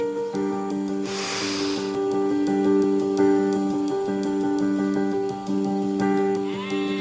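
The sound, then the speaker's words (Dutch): Grazing cattle low in long, drawn-out calls across a large open meadow just outside a town, the steady tones overlapping with no pause, while a brief rustling burst sounds near the start. No one speaks. “koeien die staan te grazen.”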